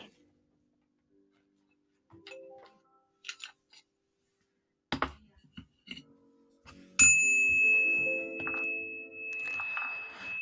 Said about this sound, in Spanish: Cruzó la puerta e incluso antes de terminar de sonar la campanilla que indicaba que alguien había entrado, se apresuró a exclamar para quien fuera aquel que tuviera que oírlo.